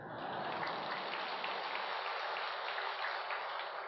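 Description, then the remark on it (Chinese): A crowd at a Buddhist teaching gathering claps steadily, a dense, crackling wash of many hands that holds at an even, fairly loud level for the whole stretch, with no voices. “先鼓掌，待会儿再说吧。”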